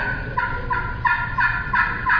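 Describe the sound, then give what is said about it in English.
A soft imitation of a hen turkey's tree call: a series of about six quiet, muffled yelps repeated at a steady, unhurried rhythm, heard alone. “Just that soft little tree call.”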